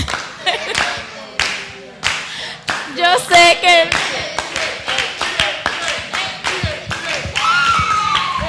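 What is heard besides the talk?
audience applause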